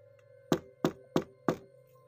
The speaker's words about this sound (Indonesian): Saya rasa ibu ini berdiri tepat di depan pintu kamar saya. Kemudian, tiba-tiba pintu kamar saya diketuk.